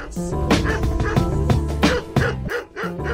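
A dog barks several times in a steady rhythm, short sharp yaps sounding over loud background music that continues throughout.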